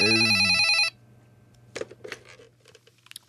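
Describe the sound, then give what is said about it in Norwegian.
A loud telephone ring tone sounds for under a second, then cuts off, followed by faint handling clicks and rustles against a low steady hum, as Mannen med ljåen places an outgoing call on a P3 radio programme. “Nå skal eh, Mannen med ljåen, eh, Petter Skjerven, ringe”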